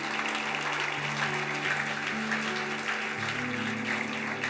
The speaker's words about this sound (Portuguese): Aplauda Jesus de novo por isso.